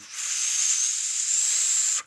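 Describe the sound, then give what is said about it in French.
A person whistles a single high, thin note for about two seconds, imitating an old signal whistle once used in cinemas to find each other in the dark. The tone holds steady and is wrapped in a loud, airy hiss of breath, with no talking. “Et là, on entend un sifflement, notre sifflement d'antan, le sifflement qu'on faisait dans les salles de cinéma pour se retrouver dans le noir.”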